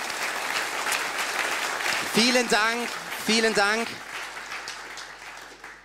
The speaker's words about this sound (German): Können mal alle Homegroup-Leiter aufstehen? Also einige sind auch bei Kids und bei Minis unterwegs. Ja, so einige erheben sich. Wunderbar. Können wir denen bitte mal einen Applaus geben und sie für ihren wunderbaren Dienst feiern?